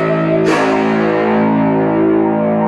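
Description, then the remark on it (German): A monochord string damped with a banana: a buzzy, harmonic-rich drone sounds loud, then a sharp strike lands and the dense, metallic tone rings on, slowly mellowing. No one speaks. “jetzt hier mal, wie er eine Banane nimmt und äh, die nutzt er teilweise als, ähm, ich glaube, als äh, Mute-Instrument oder um, um den Sound ein bisschen zu verändern.”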